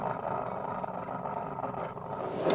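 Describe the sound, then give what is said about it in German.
A coffee machine rattles and hums steadily at a moderate level, a continuous mechanical drone with a gritty buzzing texture and no voices over it. “Im Hintergrund rappelt die Kaffeemaschine.”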